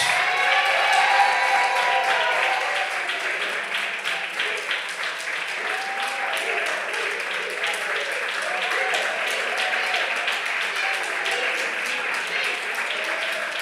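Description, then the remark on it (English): A church audience claps their hands for Jesus during a prayer service, a dense, steady wash of applause that holds for over ten seconds, with raised voices and calls mingling beneath the clapping. “Come on, clap your hands for Jesus if you can.”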